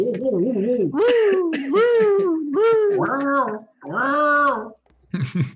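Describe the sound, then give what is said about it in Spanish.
A voice mimics a wailing spoiler alarm, with a run of loud, rising and falling siren-like sweeps in quick succession, then a short final burst. “Excelente, es la alarma de spoilers. Ni de cerca es la alarma sísmica.”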